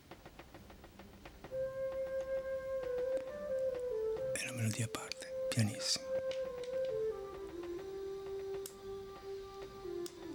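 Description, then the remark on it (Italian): A percussionist plays a very soft, pianissimo snare drum, tapping out a steady, quiet rhythm beneath a sustained melodic tone, with a man talking over it and briefly louder rustling bursts midway. “Questo è pianissimo, solamente percussionista che suona il rullante.”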